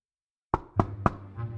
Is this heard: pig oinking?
no